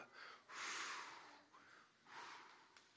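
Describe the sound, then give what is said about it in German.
Soft, airy blowing by people mimics a gentle breeze, coming in two main breathy gusts with a brief wisp in between, very quiet, with no talking. “Und jetzt müsst ihr mal ganz leise pusten.”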